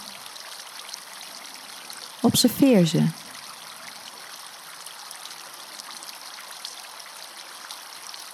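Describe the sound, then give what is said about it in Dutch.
A steady, soft rush of flowing fountain water runs through the whole recording at an even level, with a short spoken phrase briefly rising above it near the start. “Misschien zie je wel iemand in de fontein verschijnen of iets, een situatie een gedachte.”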